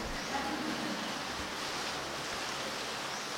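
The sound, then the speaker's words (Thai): Steady, dense rain hisses without a break, a broad wash of patter that sounds fairly loud, with no voices over it. “ฝนตกไม่ต้องตกใจโยม”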